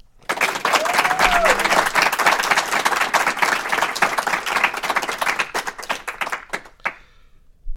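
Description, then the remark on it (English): A crowd applauds a guest at the end of a show, steadily, with dense overlapping claps at a fairly loud level that thin out and fade near the end, with a brief whistle-like tone early on. “So let's hear it for”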